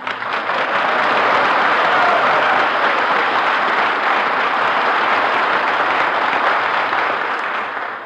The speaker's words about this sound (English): Gee, was that applause for me?